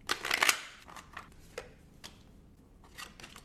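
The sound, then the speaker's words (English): Tarot card shuffling for a reading: a dense riffle of papery flutters at the start, followed by scattered soft flicks and taps as the cards are handled, fairly quiet with no talking. “And then I'll shuffle.”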